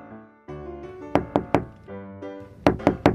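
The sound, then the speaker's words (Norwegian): Two sets of three sharp knocks on a door that no one opens, evenly spaced, each burst crisp and loud, with a sustained tonal musical background humming underneath throughout. “Ja, men det er jo ingen som åpner.”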